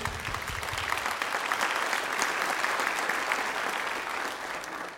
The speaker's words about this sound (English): Could you give God a hand clap of praise?